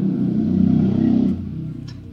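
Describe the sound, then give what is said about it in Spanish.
A motorcycle engine revs with a loud, low, buzzing roar that holds steady, then drops off partway through as it moves past, leaving a quieter rumble. No one speaks. “Si tiene que un saludo al chico de la moto que dejó la cagada porque ahora está sonando la alarma.”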